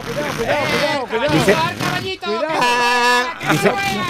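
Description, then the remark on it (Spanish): A voice imitates a motorcycle engine revving, with buzzy tones that rise and fall in pitch across several bursts and a steady held drone near the end. “acelera, dale, dale.”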